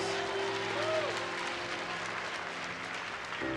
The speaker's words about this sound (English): And on this Thanksgiving Sunday, can we stand and really give him a standing ovation? Can you give God, the, the renewer of our strength, the standing ovation? Let me hear a shout in the house of God and in the nations.